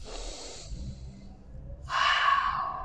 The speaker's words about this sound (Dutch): En haal nog eventjes lekker diep adem.